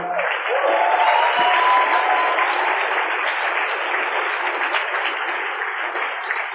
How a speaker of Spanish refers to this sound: para que les pida un fuerte aplauso, por favor.